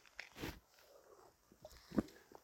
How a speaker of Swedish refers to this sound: ah, dricker lite Red Bull.